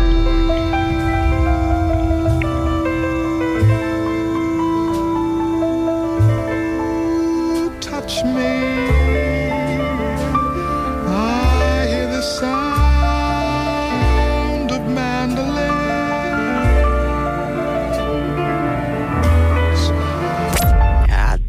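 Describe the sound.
A song plays at steady volume, a singing voice carrying a melody over piano chords and low bass notes, with sustained harmonic tones throughout.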